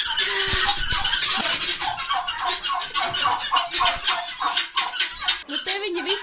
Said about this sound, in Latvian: Tās ir tās pēļi, visas tās tās lielās trokšņotājas, vai ne? Tie putni pilnīgi ausis piebļāva. Jā, tā viņi dara. Bet es lasīju, ka tas liecina par pēkšņu labsajūtu, ka viņi runājās.